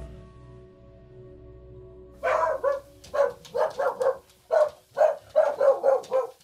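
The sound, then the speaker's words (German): Dogs, almost all of them from Spain, bark in a lively, uneven run of roughly a dozen sharp, loud barks, starting after a couple of seconds of quiet low hum. “Die Hunde, die wir haben, die sind alle, kommen fast alle aus Spanien, sind auch Hunde, die teilweise richtig misshandelt worden sind, die mit Schusslöchern hier ankommen, mit abgeschnittenen Schwänzen, traumatisiert.”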